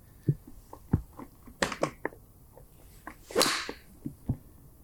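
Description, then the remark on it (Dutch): A golf club whooshes through a swing and strikes the ball with a sharp, crisp crack, amid several other short taps and clicks, with no one talking. “Oh, ik hoor niks kraken. En de bal is op lijn.”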